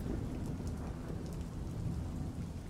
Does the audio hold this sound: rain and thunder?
yes